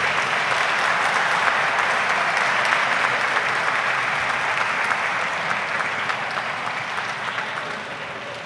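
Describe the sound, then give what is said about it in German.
Sustained applause from an audience at a baptism service, celebrating the children being baptized as their families hold them up, a dense, steady wash of clapping hands lasting several seconds at an even loudness before easing slightly toward the end, with no voices over it. “Und wir freuen uns mit Ihnen und bejubeln das mit einem Applaus für diese Kinder und für dieses Gottesgeschenk.”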